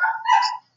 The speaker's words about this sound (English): I'm sorry if you can hear my dog barking in the background.